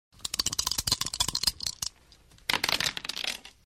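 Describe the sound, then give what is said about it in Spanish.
Dice clatter and rattle in a rapid burst of sharp clicks, go quiet briefly, then tumble again in a second, shorter roll before settling. Fairly loud, with no voices. “Y los dados cayeron en música.”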